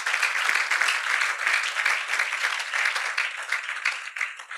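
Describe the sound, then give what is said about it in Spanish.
An audience applauds for God during a Spanish-language sermon, a dense, steady wash of many hands clapping at once that holds fairly loud for nearly five seconds before thinning slightly at the end. “¿Cuánto le puedo dar ese aplauso a nuestro Dios?”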